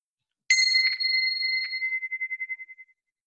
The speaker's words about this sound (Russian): Ты не будешь против, если я начну наш разговор э, вот с таких колокольчиков?